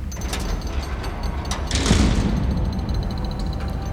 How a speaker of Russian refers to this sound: Он в сотый раз пробует открыть дверь. Бесполезно.